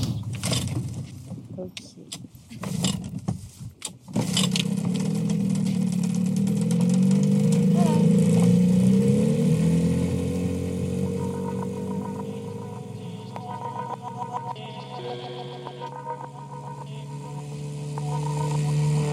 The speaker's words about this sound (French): Parfait. J'espère juste qu'on va pouvoir bien démarrer parce que ce moteur il déconne tout le temps.